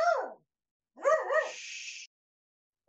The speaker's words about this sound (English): it's he's kind of an excitable dog. He's a he's a cockapoo. Cockapoo. And he's a rescue,